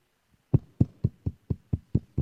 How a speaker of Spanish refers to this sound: aplausos.